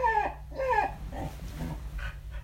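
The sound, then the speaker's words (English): A dog lets out two quick, high whining yelps, followed by softer snuffly grunts and low background hum. “are you like other men are you like other men well you're not a man you're a dog males are you like other males”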